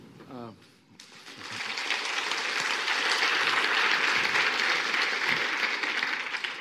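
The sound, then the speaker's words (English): A debate audience breaks into sustained applause after a speaker's introduction, a dense, steady wash of clapping that starts abruptly after a brief spoken phrase and holds at full strength for several seconds. “Yes, um, I hope, hopefully you give both um, sides the, the right amount of applause because uh, I'm, I'm, very sensitive to what happens here.”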